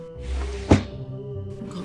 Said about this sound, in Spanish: Y cerró la puerta con un ¡pum!